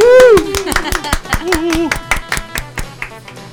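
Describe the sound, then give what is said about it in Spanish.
Applause in a studio: a quick run of sharp, loud claps in an uneven rhythm, with a high whooping cheer at the start and brief voiced cries mixed in. “Aplauso, por favor.”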